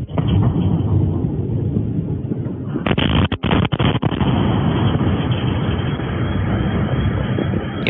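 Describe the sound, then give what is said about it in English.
A distant bomb explosion, from a bomb dropped by a plane over Kharkiv, Ukraine, rolls into a deep, sustained rumble that fills the whole stretch, loud and steady with a roaring, droning quality and brief crackling breaks partway through; no voices. “Like, for example, yesterday I've heard a plane drop a bomb or something. It wasn't that close.”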